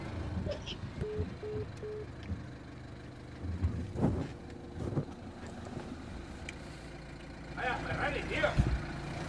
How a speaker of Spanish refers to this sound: Ah, sí, el coche rojo. Sí, sí. Estás en la puerta del garaje, echa para atrás. Ya te veo ahora.